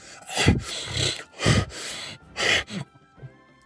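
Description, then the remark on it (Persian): Heavy panting breaths of a stooped old man, a patient, fairly loud, come in about five rhythmic rasping bursts with brief pauses between them, and no talking. “بیمار بعدی پیرمردی خمیده با صرفه های بسیار بود پسر او را به پس پرده فرستاد وقتی حرف میزد توأم با نفس نفس زدن بود”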